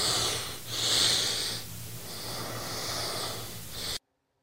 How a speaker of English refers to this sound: I think it was just you breathing.